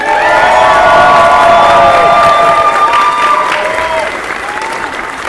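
A large crowd applauds and cheers loudly as Star Wars: The Old Republic's lead writer is called on stage, with dense clapping, shouts and whistles, gradually easing off toward the end.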